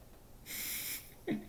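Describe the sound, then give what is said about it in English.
A dog snores on a bed, one long hissing, wheezy breath followed by a short snorting rumble, fairly quiet and alone with no talking. “And my dog is snoring.”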